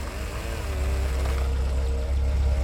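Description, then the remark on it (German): A gendarmerie police car's engine rumbles low and steady as it pulls up on the street outside and idles, a wavering motor hum over deep rumble, with no voices. “Auf der Straße draußen hielt ein Auto der Gendarmerie an.”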